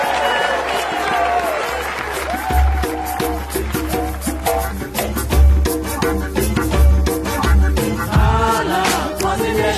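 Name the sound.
applause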